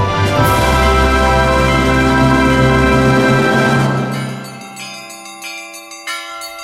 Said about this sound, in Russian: Это торжественный звон, да? Дедушка, сегодня праздник.